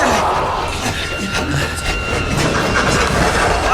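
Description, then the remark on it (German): A heavy armored door slides shut with a loud, steady metallic grinding rumble and a thin high whine, lasting about four seconds without pause. “Die Tür schließt sich schon!”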